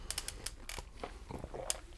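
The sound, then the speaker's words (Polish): A quiet sip of coffee, slurped through the lips in a short breathy burst, surrounded by small clicks and lip smacks. No one speaks. “To kolego, łyk kawy. Tak, siorbamy i, i szykujemy się.”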